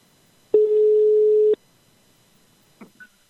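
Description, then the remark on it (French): A single long telephone ringback tone of an outgoing call, a steady electronic hum lasting about a second, then silence broken by a couple of faint clicks. “Allez, ça appelle.”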